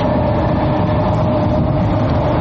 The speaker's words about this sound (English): Sorry, there was this really big car next to me, and it was like weaving. So I had this little interruption there.